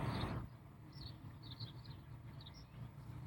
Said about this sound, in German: Kannst du das hören? Ja. Die Vögel zwitschern. Das ist nämlich heute eine Premiere.